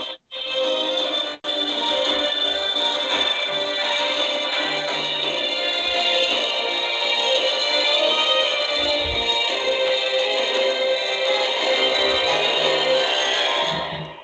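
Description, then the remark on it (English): Loud, continuous praise and worship music with a full, sustained sound, playing steadily for about fourteen seconds after a brief dropout near the start, with no talking. “That praise and worship music, when you hear that, you know it's time to silence your phones, cease all talking.”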